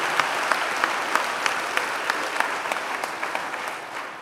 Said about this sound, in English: Our sound and media guys, our camera people, everybody. Won't you just give them a really good round of applause and just say we appreciate them?